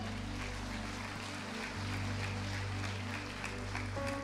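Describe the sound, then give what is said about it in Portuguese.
A church audience applauds the Lord during a sermon in a steady, dense wash of clapping lasting a few seconds, with a low sustained musical drone underneath. “Em Potifar, pode aplaudir o Senhor.”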